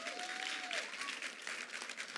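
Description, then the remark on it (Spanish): An audience bursts into steady, dense applause for the Lord, many hands clapping together in a continuous wash of sound, with a faint whistle-like tone gliding through near the start. “Dele un aplauso al Señor de convicciones, por favor.”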